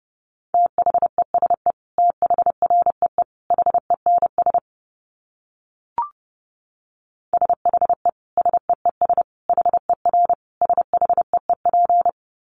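Fast Morse code at about 30 words per minute: a steady mid-pitched tone keyed in rapid dots and dashes, broken by a silent gap with a single click before the sending resumes.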